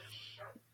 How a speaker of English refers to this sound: Absolutely, and if uh, our listeners can hear my dog barking in the background, I apologize. Um, not sure what's gone into Missy down there, but I'll check it out.